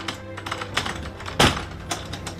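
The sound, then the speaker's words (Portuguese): Someone jiggles and rattles the locked door of an English theatre hall in Lisbon, a quick run of metallic clicks from the handle broken by one louder thump midway, with no voices. “Apesar das tentativas persistentes de Jonathan Waitman, a porta da sala britânica Estrela Hall insiste em permanecer fechada.”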